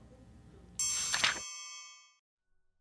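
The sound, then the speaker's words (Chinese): A bright bell-like chime rings once, with shimmering layered tones that hold and slowly fade out over about a second, followed by silence. The chime is a signal in a children's audio story telling listeners following along in the book to turn the page. “大朋友小朋友，如果你们搭配着书看，那么听到的声音就代表要翻页哟。”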